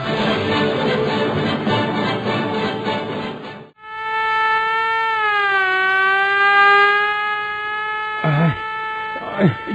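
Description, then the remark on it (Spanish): A police siren wails loudly and steadily, its pitch slowly sliding down and back up, following a burst of dense, harsh noise; short voice-like sounds break in near the end. “No, oye que ahí viene la policía, váyase.”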